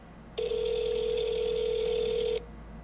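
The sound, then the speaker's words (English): A single steady electronic ring tone on an outgoing phone call, lasting about two seconds, clear and prominent over faint background hiss, with no voices. “It is ringing.”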